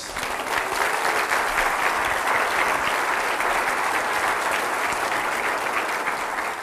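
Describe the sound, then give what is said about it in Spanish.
An audience claps steadily, a dense wash of many hands applauding continuously with no pauses or voices. “Si le va a aplaudir, apláudale con ganas.”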